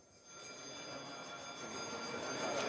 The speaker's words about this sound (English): Well, um, what I'm hearing at the moment, and what you're probably hearing too, is the division bell, which means that the vote on the third reading of the bill is now happening.